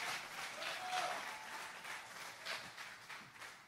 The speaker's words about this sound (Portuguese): Fala a verdade, você vai fazer o quê? Aplaude irmão, me ajuda a pregar.